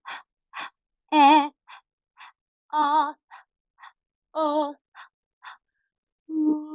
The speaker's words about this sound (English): It sounds ridiculous, but it's incredible. It's a panting exercise and it connects your support to whatever's happening vocally. And it goes through all the vowels and then an ooh. So it sounds like this.